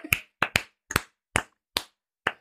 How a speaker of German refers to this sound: komm, wir klatschen jetzt einmal einfach mal für die schlauen Leute. Wir klatschen, okay. Warte, ich bin nicht so schnell.